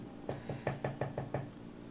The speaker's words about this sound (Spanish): Entonces, imagínate qué loco que de repente estés en tu casa, te está echando un, un, un pastelito de zanahoria con un cafecito bien rico y de repente tocan a la puerta.